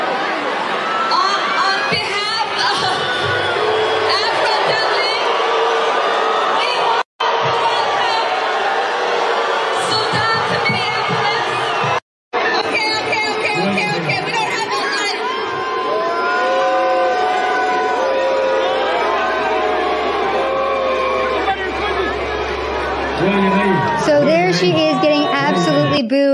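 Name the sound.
crowd booing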